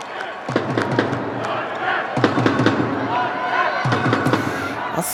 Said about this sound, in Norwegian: Sånn høres det vanligvis ut når håndballjentene spiller eh, EM-kamp. Full jubel på tribunen fra supportere med det norske flagget på T-skjorta, kubjell i hånda og vikinghjelm på hodet.